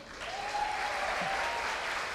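A church crowd claps steadily for the Lord and for their leader, a dense wash of many hands applauding at once with no pauses, holding an even, moderate loudness throughout.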